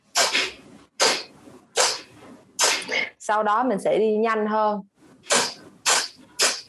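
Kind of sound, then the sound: human body sound, rapid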